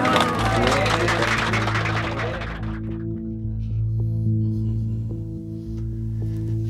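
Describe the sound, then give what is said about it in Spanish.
A brief burst of applause from a small group, fairly loud, lasting a couple of seconds before giving way to a steady low engine-like hum. “Un aplauso”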